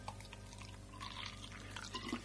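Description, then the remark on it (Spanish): Water runs steadily into a glass being filled at a kitchen counter for a couple of seconds, a soft continuous pour with faint splashing and trickling, fairly quiet, with no one speaking. “un vaso con agua, cogí la pena, la metí dentro del vaso de agua y la ahogué.”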